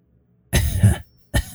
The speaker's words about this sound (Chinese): 忽然耳边传来一声听起来有点苍老的咳嗽声。